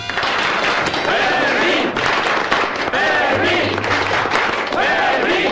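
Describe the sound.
Sustained, dense applause from an audience for a guard fills the whole clip at a steady, loud level, while voices shout and cheer over the clapping.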